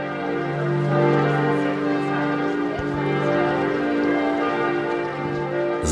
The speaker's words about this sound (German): läuten abends um 18 Uhr die Glocken in Albstadt. Ein richtig langes Glockenkonzert war das gewesen.